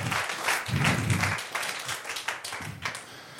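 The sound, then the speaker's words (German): A small group claps steadily for a few seconds, the dense patter of hands starting strong and then thinning out toward the end. “Ihr könnt gerne mal klatschen für die Haley.”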